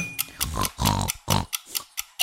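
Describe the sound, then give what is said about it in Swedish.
A voice imitates a pig with a rapid series of short, snorting grunts and oinks, fairly loud, several bursts in quick succession over about two seconds, as part of a seven-second challenge to imitate three animals. “Ah, du är Gris, klarade.”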